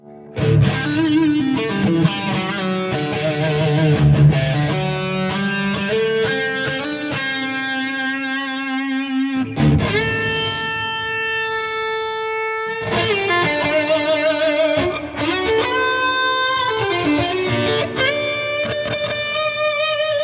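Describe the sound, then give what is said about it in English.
A distorted electric guitar played through a Dracarys and a Mimiq plays thick sustained chords and ringing single notes, loud, with added reverb trailing each phrase; no voices. “Add a little bit of reverb.”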